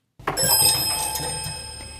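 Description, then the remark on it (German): A short bright ding-dong bell chime, used as a segment jingle, rings out with a sharp strike and lingering metallic shimmer, a second softer tone following, ringing on alone and slowly fading without any talking. “Ding Dong. An dem Jingle arbeiten wir noch ein bisschen, der wird, der wird noch perfektioniert.”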